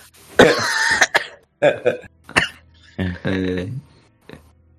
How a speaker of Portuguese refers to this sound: pessoa que tá tossindo tá bem, velho? Não sou eu momento tosse é de vez em quando. Sou eu, cara, sou eu que tava.